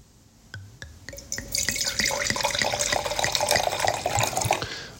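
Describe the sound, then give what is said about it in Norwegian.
Chablis Premier Cru white wine from the producer Domaine Milcent splashes into a glass, starting with a few separate drips, then building into a steady pour with a bright, ringing gurgle that rises slightly in pitch as the glass fills. “Så Derfor tenkte jeg skulle Jeg så det kom til en ny en på polet nå, så da må jeg helle litt oppi glasset her.”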